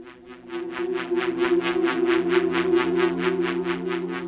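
Spacey ambient music with a steady low drone and a shimmering high tone that pulses rapidly and evenly, sustained at moderate volume with no voices.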